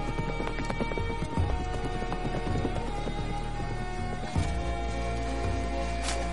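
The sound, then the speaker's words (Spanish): Horses ridden by riders gallop with a steady, rapid clatter of clip-clopping hooves, continuous, over a dense, sustained backdrop that sounds like music, with no voices. “Cabalgan.”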